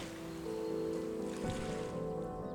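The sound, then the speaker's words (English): A boat is maneuvered through water toward a floating body, its low droning hum blending with a continuous wash of water and wind noise, even in loudness, with no voices. “After that, Stillman maneuvered the boat in silence, eventually settling it near the floating corpse.”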